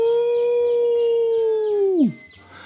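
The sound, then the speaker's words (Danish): A voice imitates a large male lion roaring loudly as it stands with its forepaws on a small tree stump in its enclosure: one long, steady bellow held for about two seconds before sliding sharply down and breaking off, with no other talking. “og i det samme øjeblik, så stiller den store handløve sig med forpoterne op på en lille træstup, som er inde i deres indhegning, og prøler endnu højere end faren.”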